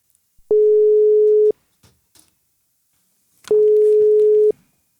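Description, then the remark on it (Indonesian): A telephone ringback tone while calling a colleague, who does not yet answer: two steady one-second beeps separated by a two-second pause, clear and fairly loud, with faint clicks in between and no talking. “kita langsung telepon aja.”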